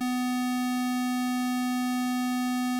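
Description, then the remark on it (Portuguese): A steady, unwavering electronic sine-wave tone, like a chiptune synth note, holds at one pitch for the whole few seconds, smooth and continuous with no speech or other sounds. “Essa aqui é uma onda. Senoide.”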